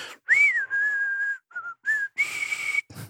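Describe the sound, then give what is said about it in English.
A lone person whistles a short melody from the theme of the film The Good, the Bad and the Ugly: a rising note held long, a couple of quick short notes, then another sustained tone, slightly breathy and a little unsteady. “And oh, that's my poor rendition of trying to whistle.”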